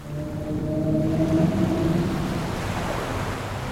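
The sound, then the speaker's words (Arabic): Common minke whale vocalization: a low, droning tonal call with layered harmonics during the first two seconds, set against a steady underwater rush of noise that continues to the end. “حوت المنك المألوف”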